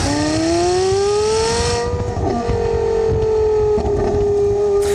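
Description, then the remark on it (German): A ten-cylinder sports car engine revs high and holds a steady, loud whine, the pitch rising slightly then leveling off over five seconds with no speech. “Das ist das Zehnzylinder-Ding, deswegen klingt er wie ein Ferrari.”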